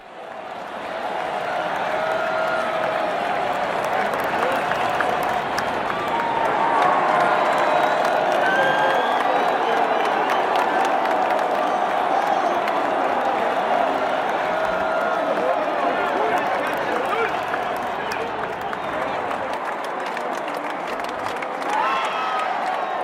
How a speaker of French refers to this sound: Vous souvenez-vous mieux maintenant du bruit d'une foule Du murmure collectif des voix s'élève toujours un autre murmure. Un murmure qui semble être autre chose que la simple somme des voix individuelles.